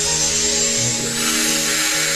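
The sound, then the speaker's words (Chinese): A steady, high-pitched electric grinding whine from a modern electric jade carving tool, with a constant motor hum and harsh gritty texture, holding at an even loudness throughout with no voices. “玉雕现在的工具已经非常的现代化了，完全是电动的工具。”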